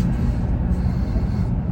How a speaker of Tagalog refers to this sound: Nasa kotse tayo.